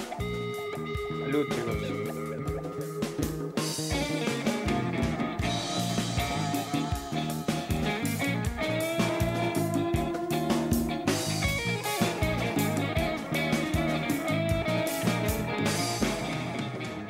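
Full-band music by a Peruvian band plays steadily and loudly for the whole stretch, with a driving beat, layered sustained instrumental tones and bright guitar-like textures. No one speaks over it.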